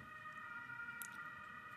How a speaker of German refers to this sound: hört ihr den Krankenwagen?